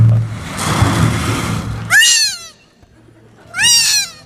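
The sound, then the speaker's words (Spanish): Two high, wavering squeals imitate seagull cries, made with a small mouthpiece of bamboo and a balloon held in the mouth, as part of a small Hawaiian seaside ambience. They come after a stretch of steady rushing noise. Both cries are loud and bend in pitch, almost cat-like. “Y fíjate qué bonito, nos metemos en la, en la, boca una pequeña boquilla que hemos hecho con un bambú y un globo para, para hacer las gaviotas.”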